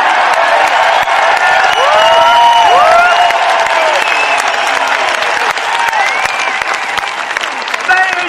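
A large protest crowd at the Unite For Freedom mass protest and march in Trafalgar Square, London, applauds and cheers: a dense, steady wash of clapping with whoops and rising shouts or whistles cutting through, loud and sustained for the whole stretch.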